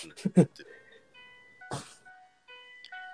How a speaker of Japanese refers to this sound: 音楽、オルゴールいいですね。ピアノですよ。ピアノバージョンですね、今。あ、でもオルゴール、あ、オルゴールも半分入ってますよ、これ。